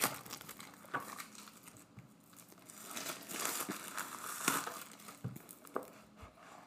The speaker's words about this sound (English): So let's you know let's unbox it, and we're going to do a little sample of some of the questions here.